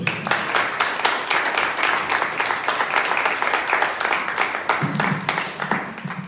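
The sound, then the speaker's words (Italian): Steady audience applause at the end of a talk, many hands clapping densely for several seconds at a fairly loud, even level, with a faint voice briefly heard under the clapping near the end. “direi che abbiamo raggiunto il tempo, lasciate la parola per le conclusioni. Un applauso.”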